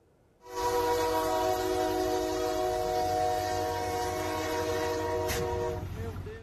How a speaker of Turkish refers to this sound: Yük treni hem geçitten geçmeye çalışan otobüse çarptı. Camdan fırlayan bir yolcunun hayatını kaybettiği kazayı bir otomobil sürücüsü kaydetti.